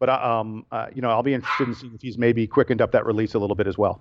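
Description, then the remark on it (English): The man's own pet dog barks in the background, partly buried beneath the man talking steadily in the foreground. “By the way, I have to ask if you can uh, if you can hear my dog in the background there.”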